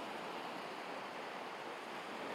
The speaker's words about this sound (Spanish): De fondo, creo que escucháis el mar, ¿no? Estoy en la playa. Bueno, estoy en el paseo marítimo, sentado en un banco enfrente del mar.